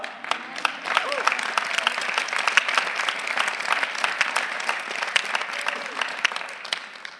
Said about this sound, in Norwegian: Bare klappe.